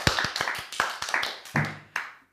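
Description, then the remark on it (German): Sparse, half-hearted applause from about three people for Henning: roughly a dozen uneven, sharp hand claps over a couple of seconds, loose in rhythm and petering out at the end. “Ähm, unmotivierter Applaus von drei Leuten für Henning.”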